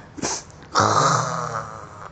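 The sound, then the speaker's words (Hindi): A quick, sharp sneeze bursts out, then after a brief pause a loud, deep lion's roar swells up and rumbles on steadily for over a second before cutting off. “उसने फिर से छींका उसने कहा तो उसको अपनी छींक में शेर की दहाड़ सुनाई पड़ने लगी”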